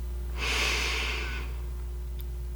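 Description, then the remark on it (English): A single slow, airy inhalation through the nose during a mindfulness breathing exercise, fairly quiet, lasting about a second before fading into a low steady hum. “I'd like to invite you to shift your attention from whatever you're doing prior to this and invite you to begin breathing in and out through your nose. So let's take a slow breath in”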